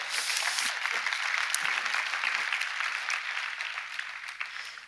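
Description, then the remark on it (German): An audience applauds the performers after an acted scene, steadily, a dense wash of many hands clapping at an even, fairly loud level that tapers off slightly toward the end. “Euer Applaus, ihr habt das super gemacht.”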